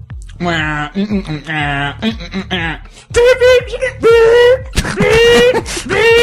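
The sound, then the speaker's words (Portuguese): A man's voice mimics a subway train, starting with choppy pulsing hums and then sliding into long, loud, rising whines like an accelerating motor, performed alone. “barulho do metrô.”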